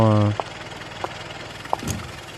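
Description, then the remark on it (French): A car engine roars loudly for a moment, then settles into a low, steady idle while faint clicks tick at regular intervals, about every half second or so. “parce que là, tu vois, on a une voiture,”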